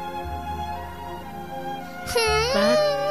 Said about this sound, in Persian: این رو چرا گریه میکنی؟ صورتم درد میکنه چرا؟